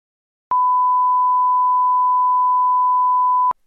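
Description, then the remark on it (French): A single steady electronic beep holds one pure pitch for about three seconds, loud and clean, starting and stopping abruptly with silence around it. “Deuxième prise. Bip.”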